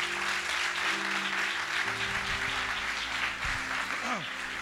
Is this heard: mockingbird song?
no